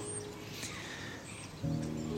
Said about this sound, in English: The birds are really singing today. The sun's out, the skies are blue, it's cold. There's a starling on my chimney stack, and it's making the most extraordinary noises, kind of chirping and then clicking.